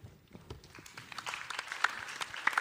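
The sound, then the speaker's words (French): Audience applause for Victor Denouvion, departmental councillor of Haute-Garonne, at a session on local authorities facing disinformation, builds steadily from scattered claps into a dense, sustained burst of clapping from a crowd, with sharp individual claps standing out near the end. “On peut l'applaudir.”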